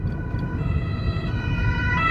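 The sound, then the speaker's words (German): An ambulance siren wails steadily over a low rumble of road traffic, its tone rising slightly and growing a little louder as it approaches. “Fenster wieder hoch, hier kommt ein Krankenwagen.”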